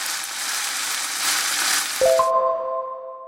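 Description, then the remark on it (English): Steady, loud sizzling of food frying in a hot pan hisses for about two seconds, then cuts off as a couple of metallic clinks ring out and fade. “A sizzler comes from the word sizzle, which we use to describe the sound of something frying in a very hot pan.”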